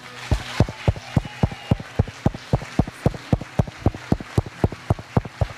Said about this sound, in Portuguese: Aplaudir e glorificar o Senhor. Vamos fazer isso? Por um minuto você pode fazer isso com a cabeça levantada, mão acima do nariz, bater palmas a Jesus e glorificar a Ele.